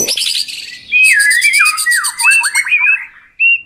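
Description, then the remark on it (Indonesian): Several birds sing together in a busy, overlapping chorus of squawks, chirps and sliding whistles, loud, with brief pauses between bursts and no voices. “Dan konser itu pun mulai lagi dari awal. Wah, senangnya semua burung bisa menikmati konser hari itu.”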